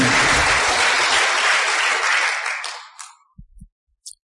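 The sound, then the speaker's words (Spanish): Loud, dense applause from a crowd, a steady wash of many clapping hands that fades out after a few seconds, leaving a couple of faint, isolated claps at the end. “Gracias, no es para que me aplaudan.”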